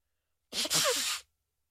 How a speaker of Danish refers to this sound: Det er lidt ulækkert ind i mikrofonen. Det er da altså. lige med. Ja, men jeg trykker. Nej, pusser du så meget næse? Ja.